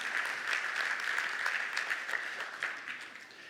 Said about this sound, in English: a round of applause for just being a smart guy.